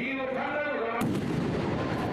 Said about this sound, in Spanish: Dos disparos efectuados con un arma de fabricación casera dejaron a Abe herido de muerte y a Japón entero consternado.